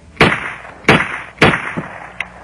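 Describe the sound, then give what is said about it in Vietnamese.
Three loud, sharp gunshots ring out in quick succession on an empty city street on an autumn afternoon, each snapping hard and trailing off into a short echo, followed by a couple of fainter pops. “Tiếp theo Ba phát súng rít vang lên trong buổi chiều thu phố vắng”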